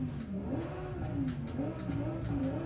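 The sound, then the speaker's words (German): A racing game car engine revs continuously, its mid-pitched drone rising and falling in repeated waves as the throttle is pushed, steady and fairly loud throughout with no talking. “okay, gebt Gas.”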